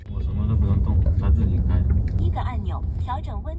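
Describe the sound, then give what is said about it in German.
A driverless, fully autonomous car rolls through normal city traffic in Shenzhen, China, with only a safety monitor in the driver's seat; its engine and road noise form a steady low rumble while a voice speaks over it. “Das Auto fährt ohne Fahrer, vollautonom im normalen Stadtverkehr.”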